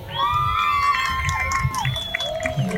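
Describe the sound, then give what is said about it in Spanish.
An audience cheers and shouts loudly in applause for a group of women who collected 200 bottles, with sustained high whistles or voices ringing above a dense rumble of clapping and chatter, continuous. “Un aplauso para ellas, por favor.”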